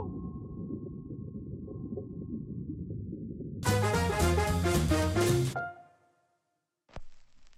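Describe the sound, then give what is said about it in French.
A short intro theme: a deep, murky rumble with a steady droning tone gives way to a loud burst of bright, layered synth chords, which cut off abruptly into silence before a brief final hit. “Bon, à cette heure, partez-moi ce générique-là et plongeons dans les abîmes de l'océan pour en apprendre plus sur le Titanic.”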